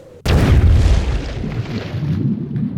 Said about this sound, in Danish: Den her følelse af lige pludselig bare ikke have grund under fødderne. Svæve et kort øjeblik i luften. Jeg når i hvert fald ikke at sige noget, inden jeg rammer vandet.